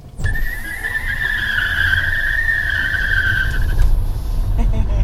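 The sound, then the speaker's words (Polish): Car tires screech loudly in a sustained high-pitched squeal as a vehicle accelerates away, over a steady low engine rumble, lasting about four seconds before fading. “Pora zatem ruszyć z piskiem opon.”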